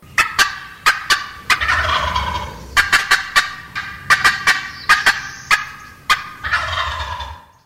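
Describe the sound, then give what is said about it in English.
A turkey gobble produced on a custom-made Crooked Creek turkey call by Wild Game Dynasty: rapid, rattling bursts of sharp clucking notes in loud repeated volleys, with short pauses between them and no talking. “Custom made turkey calls by Wild Game Dynasty's Crooked Creek.”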